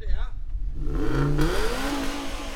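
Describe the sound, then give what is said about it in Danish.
A five-cylinder 2.4-litre car engine revs up, its steady hum climbing into a rising, throaty whine that holds loud to the end, with a brief voice at the very start. “men det er en 5-cylinder 2,4 motor, mener jeg, hvis det er, det er, ja.”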